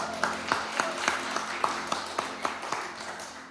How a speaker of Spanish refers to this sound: Feliz Día del Padre. otro aplauso.